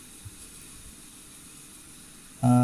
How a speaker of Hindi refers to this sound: by the way ये पंखे की आवाज़ आपको बहुत फ्रस्ट्रेटिंग लगने वाली है पर प्लीज़ उसे इग्नोर करें कृपया पंखे की आवाज़ को इग्नोर करें